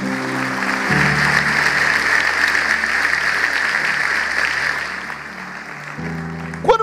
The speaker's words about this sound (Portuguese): Deus abençoe. Vamos dar um aplauso aí para esse irmão.